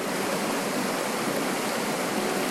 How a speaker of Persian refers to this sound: یه رودخونه رو تصور کنید الان میخوام تصور کنید کاملا چشتون رو ببندید یه رودخونه رو تصور کنید که همینجوری چشتون رو متمرکز کردید به آب و یه نوری داره هی خاموش میشه و صدای آب